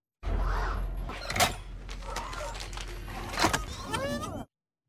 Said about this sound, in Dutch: Ja, we hoorden een robotachtig geluid. Dat was natuurlijk duidelijk, eh, want we hoorden B2 Emo. Spreek je dat anders uit? Ja, zoiets zeker. Ja, B2 Emo. De robot uit de fenomenale Star Wars-serie Andor.